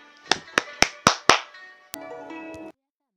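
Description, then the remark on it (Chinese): Five sharp, evenly spaced hand claps ring out in quick succession, welcoming a mentor of a storytelling program, followed by a sudden click and a brief sustained tonal sound that stops abruptly. No one speaks. “为我们解析这段小故事，掌声有请。”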